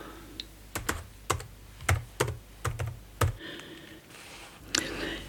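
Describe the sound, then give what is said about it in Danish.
Irregular keystrokes clatter on a computer keyboard, fairly loud, in short uneven bursts with a low hum underneath and a faint breathy sound near the end. No one speaks. “Det skal jo skrives ned.”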